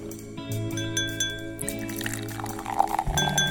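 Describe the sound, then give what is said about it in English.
Champagne pours over a steady tonal bed, then glasses clink with bright ringing tones near the end, moderately loud, with no one speaking. “But first, let's pop the cork on this bubbly little show.”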